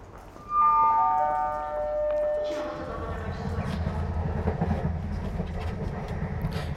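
train riding on rails

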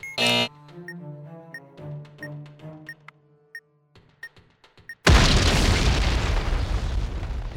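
cannon firing boom

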